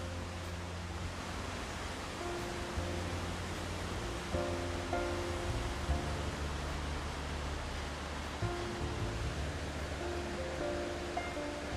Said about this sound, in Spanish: ahorita donde ya entro lo que es la etapa de, de las lluvias y me encanta por completo que esté lloviendo, que llueva, me encanta, me relaja, me da una sensación de liberar, descargar y estar conmigo mismo. Y nada, escuchan un momento la lluvia.